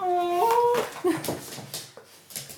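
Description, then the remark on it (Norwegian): A female dog whimpers excitedly, overjoyed at meeting a visitor for the first time, a high, wavering whine that rises in pitch, then breaks into a few short squeaky yelps and snuffles. “som da Svaner kom og møtte min, ja ok da, firbeinte sønn for første gang”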